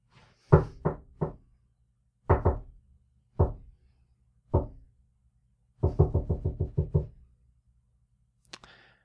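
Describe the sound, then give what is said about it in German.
Crisp knocking on a door: a quick set of three raps, a few single knocks spaced apart, then a rapid burst of about eight, with no voices. “Aber diesmal schwieg er sich in, hüllte er sich in Schweigen und Maria klopfte”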